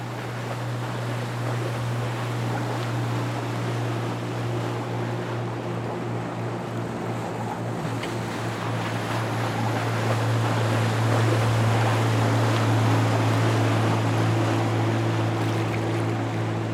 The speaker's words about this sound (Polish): a tu lecą. Mhm. 5, 10, jeden za drugim esy floresy wywijają na łodzi.